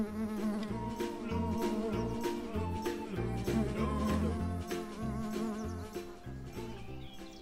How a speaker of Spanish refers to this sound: En la tarde del sexto día de verano sobre el cerro de Suba iba revoloteando una pequeña abeja.